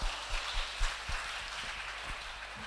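An audience applauds a speaker after his introduction, before his talk on the spiritual condition of young people: a steady, dense patter of many hands clapping at once, fairly soft and even throughout, with no voices over it.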